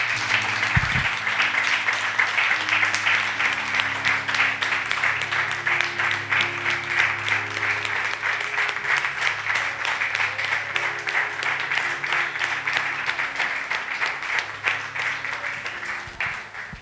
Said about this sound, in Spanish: Démosle un aplauso a nuestro papá.